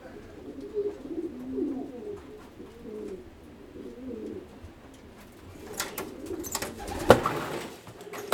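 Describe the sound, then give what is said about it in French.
Homing pigeons coo in soft, throaty, rolling calls that repeat throughout, with a burst of rustling or flapping near the end and no talking. “La colobophilie, c'est bah, c'est l'élevage de pigeons voyageurs.”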